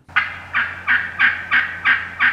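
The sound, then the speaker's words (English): A wild turkey gobbles, a loud rattling call broken into seven quick, evenly spaced bursts, with no other sounds around it. “United States postal workers, on the one hand, have been facing off against wild turkeys, on the other hand.”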